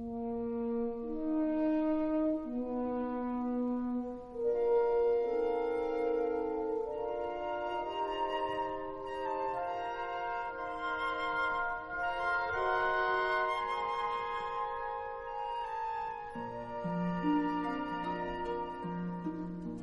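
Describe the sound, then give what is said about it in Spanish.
A full symphony orchestra, the Vienna Philharmonic conducted by John Williams, plays live in Vienna, with sustained strings and layered harmonies swelling and shifting in rich, continuous tones at a steady moderate volume, with no voices. “Y mientras flotamos en las ondas con esta maravilla musical, en directo en Viena con la Filarmónica de Viena dirigida por John Williams.”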